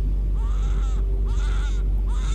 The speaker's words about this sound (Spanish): Mantuvo su mirada un momento al ocaso, cuando de pronto escuchó a lo lejos el llanto de un niño pequeño.